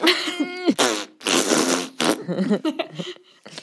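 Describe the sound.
A voice imitates a wet pooping sound: a strained, drawn-out vocal tone gives way to sputtering, spluttering bursts and short gurgly noises, fairly loud.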